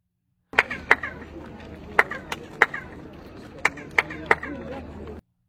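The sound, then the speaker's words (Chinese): Sharp handclaps toward the Feathered Serpent pyramid, about eight in irregular pairs and singles, each followed by a short, chirping, bird-like echo that imitates the feathered serpent's call, over a steady murmur of background crowd noise. “因为对着羽蛇神金字塔拍手，就会听到回应，产生像鸟叫的声音。”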